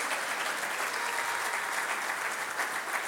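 Steady audience applause welcoming a family of four fills the whole stretch, a dense, even wash of many hands clapping at a constant moderate level with no voices rising above it.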